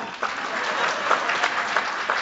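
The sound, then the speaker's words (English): A library audience claps steadily for Lawrence Blum, a distinguished professor from the University of Massachusetts and author of High Schools, Race, and America's Future. It is a dense, even patter of many hands sustained throughout without pause, moderately loud, with no voices standing out. “Oh, you can you can clap.”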